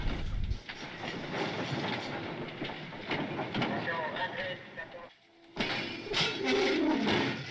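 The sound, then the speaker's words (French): Railway wagons clank and bang against each other over a loud, continuous rumble, with repeated metallic knocks, a brief lull near the end, then the clattering resumes. “Moi, j'ai dans l'oreille, le, bruit des wagons qui s'entrechoquent, nuit et jour, les haut-parleurs criant leurs ordres.”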